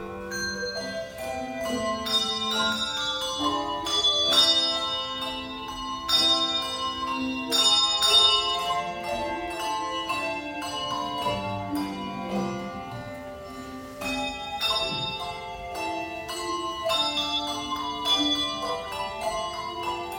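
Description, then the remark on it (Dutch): A handbell choir rings out a carol melody, many bright, overlapping bell tones struck in a steady rhythm with chords ringing and decaying together, full, with no voices. “naast die handbellringers was er ook weer een brassband”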